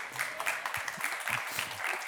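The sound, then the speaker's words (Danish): A crowd claps steadily in a dense, continuous patter of many hands, moderately loud, with a few brief low murmurs underneath. “Ja, det er jo sådan set jeg selv, I skal klappe af, fordi det er da dejligt, at øh, I har inviteret mig.”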